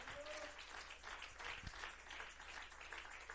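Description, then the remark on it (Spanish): A crowd applauds steadily, a dense wash of many hands clapping at once that holds at an even, moderate level throughout without fading. “Le damos un fuerte aplauso a él.”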